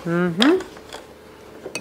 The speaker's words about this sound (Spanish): Vamos a agregar hielo a nuestro shaker.